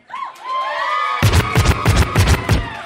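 An audience cheers loudly, with high whoops and whistles at first, then a dense roar of cheering driven by steady, rhythmic claps or stomps.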